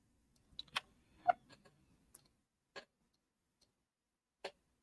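A prize wheel ticking as it spins down, sharp clicks coming quickly at first, then spacing out into a few slow, isolated ticks. Moderately loud, with no voices.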